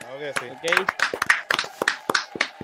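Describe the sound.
Audience applause: a burst of sharp, uneven claps from a small crowd, with voices and a few high cheers mixed in after a brief spoken phrase.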